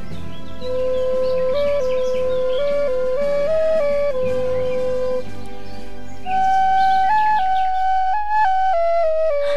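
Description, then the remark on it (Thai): A Thai reed pipe plays a lilting melody of held, stepping notes, loud, climbing higher and growing stronger in the second half, with no voices. “และก็ได้เป่าปีดังขึ้นดังขึ้น”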